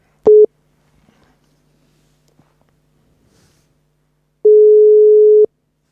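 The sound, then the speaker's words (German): A steady electronic telephone tone sounds twice as a call is connected from Hamburg to a German professional in a hotel in Stellenbosch, South Africa: a short beep, then after a few seconds of near silence a longer, one-second tone, clear like a call ringing through on the line. “Und jetzt drücke ich hier mal zwei Knöpfe und hoffe, dass wir dann die Leitung hinbekommen.”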